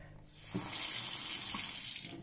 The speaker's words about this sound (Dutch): iemand een bad vol laat lopen, even de kraan laten lopen of een glas water pakken.